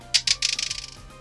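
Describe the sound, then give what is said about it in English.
A quick clatter of several charm dice rolled for a game tumbling across a hard tabletop, with two sharp initial hits followed by a rapid series of smaller clicks that fade out, fairly clear. “You roll all your charm dice.”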